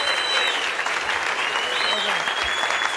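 An audience applauds steadily, a dense, even wash of many hands clapping that holds at the same fairly loud level for about three seconds without fading.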